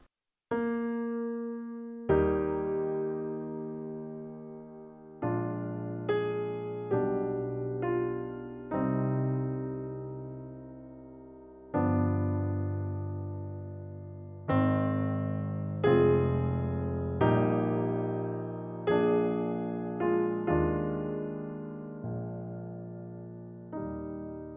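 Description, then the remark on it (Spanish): A slow, stately piece of music at a largo pace, roughly 40 beats per minute, with full chords struck one after another and left to ring and fade. No one speaks. “Por ejemplo, largo es un tiempo lento. Equivale a unos 40 bits por minuto y suena más o menos así.”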